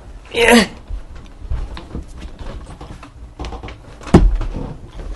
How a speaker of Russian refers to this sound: Сейчас, подожди, по, стол, по столу ударю им, подожди.